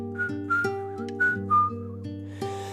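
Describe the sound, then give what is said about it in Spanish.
Soft whistling coming from the alameda traces a short melody of several brief, gliding notes, sitting over a steady, sustained low instrumental drone; the whistle is fairly quiet and no one speaks. “se escucha un leve silbido”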